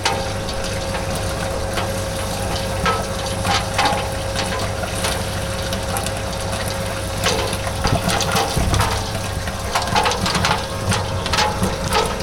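A steady mechanical hum from an industrial popcorn kettle with a huge tub and an oil pipe as it starts popping corn, with scattered sharp pops breaking out irregularly and growing denser toward the end, no voices.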